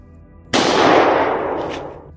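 A single loud pistol shot from a Tokarev, fired a few centimetres from a man's head, with a sharp, sudden crack followed by a long, fading reverberant tail, heard alone with no voices.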